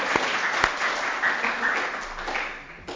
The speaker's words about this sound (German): Super, jetzt klatschen wir ihm Applaus, ja. Das ist wirklich gut.